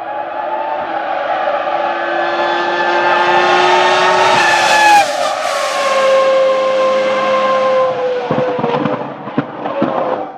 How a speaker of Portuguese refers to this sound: ouvinte, para ilustrar o que a gente tá falando, isso que você vai ouvir agora é um motor V10.